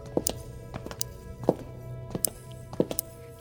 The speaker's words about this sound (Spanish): ¿Qué es ese ruido? Agujas. El médico le recomendó coser para la artritis.